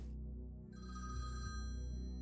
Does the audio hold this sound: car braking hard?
no